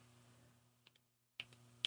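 A few sharp snapping clicks from hands, close to the microphone, come in an irregular scatter: two light ones, a pause, then louder snaps over a low steady hum.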